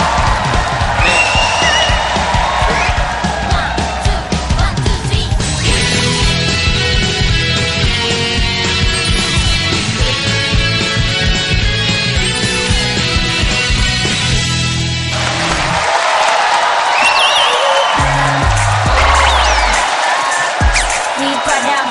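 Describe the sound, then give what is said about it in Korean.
A band that came along with the audience at a panel show plays steady, sustained chords over a constant roar of crowd noise, while shrill whistles slide up and down at the start and again near the end, loud throughout. “빌리오 코스티 분들 외에 생각지 않았지만 함께 오신 악단입니다.”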